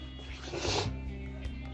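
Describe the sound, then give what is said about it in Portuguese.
A single breathy sniff through the nose, a short rush of air drawn in and then gone, with no talking around it. “Desculpa pela fungação de novo.”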